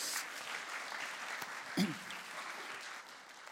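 Steady audience applause, a dense crackle of many hands clapping at an even level, with a brief louder whoop or call rising out of it midway before the clapping thins slightly toward the end.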